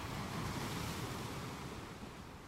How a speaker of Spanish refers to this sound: Ahora el mar.